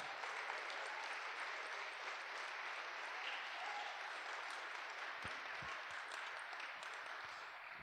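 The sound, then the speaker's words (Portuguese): A church audience claps steadily for several seconds, applauding the Holy Spirit, a dense, sustained wash of applause from many people, with faint voices mixed underneath. “Pode aplaudir o Espírito Santo.”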